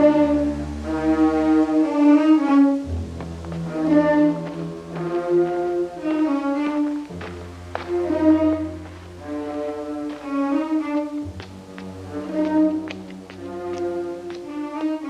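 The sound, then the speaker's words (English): An orchestral film score builds tension with a three-note string motif whose note order is shuffled across three stacked layers, over deep, sustained bass notes that shift every few seconds between a couple of different notes. Loud and full, with no voices. “And he's just sort of shuffling around the order you hear those three notes in three different layers.”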